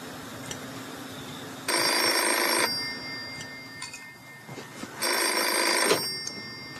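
A telephone rings in two loud, bright bursts of about a second each, separated by a quiet pause, with a steady low hum underneath and no one speaking.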